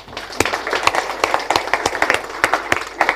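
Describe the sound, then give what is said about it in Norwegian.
A church audience applauds the people just prayed for, many hands clapping together in a dense, crackling patter with sharper individual claps popping out irregularly throughout. “Jeg tror vi må gi dem en skikkelig klapp.”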